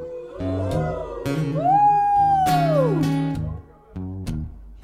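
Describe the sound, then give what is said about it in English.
A voice sings a long, rising and falling howl-like tone imitating hounds howling, with a steady instrumental backing and a few sharp percussive hits. “Little dogs and big dogs. Howl! begin to howl. Ooh, ooh, and the hounds begin to howl.”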